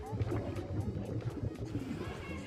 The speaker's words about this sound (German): Hier im Bassin de la Villette schon. Dreimal am Tag wird das Wasser untersucht. Trübe sieht das Wasser aus. Algen treiben darin herum. Zögerlich steige ich rein und schwimme ein paar Bahnen.